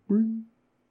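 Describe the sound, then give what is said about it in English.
A single short hummed note, voiced at a steady pitch, imitating the Windows error sound a computer made when a mouse was clicked. It is fairly loud, fades quickly, and is followed by silence. “So during the uh, the comment reading section, I did click my mouse and it made the Windows bad sound where it goes.”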